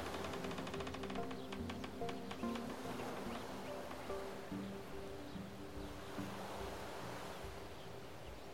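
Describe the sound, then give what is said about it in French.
A steady, soft wash of gentle lapping waves at the shore of a large Canadian lake on a calm, sunny autumn day, continuous, with faint sustained tones humming underneath and no voices. “Vous êtes à l'autre bout du monde, allongé sur une chaise longue au bord d'un grand lac canadien.”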